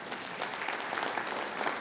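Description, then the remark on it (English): An audience claps steadily during a sermon, a dense wash of many hands applauding at an even level for a couple of seconds, with no voices standing out. “yeah, we can clap for that.”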